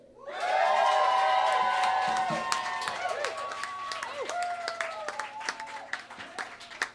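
An enthusiastic crowd at the Bishop, during a live broadcast, cheers loudly for a performer about to play, with many high whoops and shouts layered over steady applause and clapping. The roar swells in quickly and stays strong, with sharp individual claps poking through as it thins.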